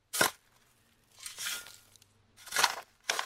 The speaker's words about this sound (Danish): det er lyden af en, der graver i jord.